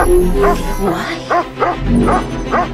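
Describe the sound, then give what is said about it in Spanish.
A dog barks in a quick series of sharp yips, about five or six close together, mixed with high whimpering whines, fairly loud, over a busy background. “¿No has visto el perro?”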